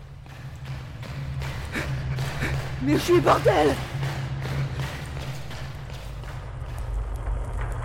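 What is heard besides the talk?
running footsteps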